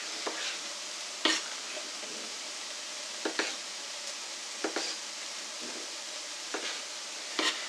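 A knife cuts plum (Roma) tomatoes on a cutting board in a kitchen, a series of short, sharp knocks at an uneven, unhurried pace, with no talking.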